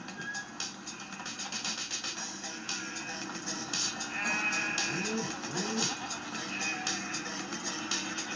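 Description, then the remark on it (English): A goat bleats a few times in quick, wavering cries partway through, set against a steady, hissy outdoor background noise that runs throughout. “Cocaine Goat.”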